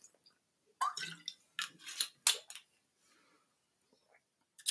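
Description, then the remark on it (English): Sipping and slurping a drink, a few short wet bursts over about two seconds, followed by quiet with faint mouth sounds. “let me take a drink. Let me take a sip.”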